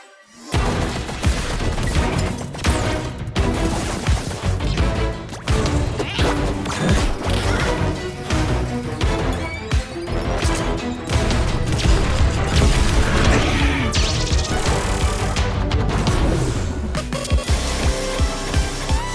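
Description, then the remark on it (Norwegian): Loud, dense electronic music and sound effects from the video game Savant Ascent Remix, nominated at Gamescom for best sound, packed with punchy crashes and thwacking hit effects, playing continuously for the whole stretch with no one talking. “Og jeg tenkte, la oss, uh, la oss høre da på lyden til Savant.”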